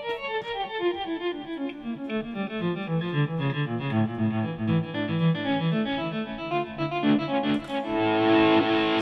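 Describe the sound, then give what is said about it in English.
Electric guitar notes from a live recording in San Francisco ripple and cascade through heavy delay, each phrase echoing into overlapping, shimmering repeats that swell louder toward the end, with no talking. “You had a lot like of your full contact stuff, and on, on, this recorded version, some really trippy yeah. delay stuff too.”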